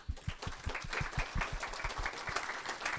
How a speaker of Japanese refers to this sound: どうぞ皆様拍手でお迎えください